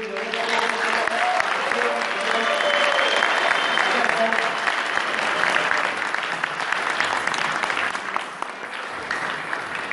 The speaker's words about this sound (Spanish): Con eso me pido un fuerte aplauso para ustedes.